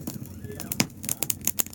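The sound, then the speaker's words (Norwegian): Irregular crackles and sharp pops from a burning bonfire outdoors after about half a metre of snowfall, snapping in quick bursts over a low, steady rumble, with a faint voice murmuring in the background. “Så det er fint med bål.”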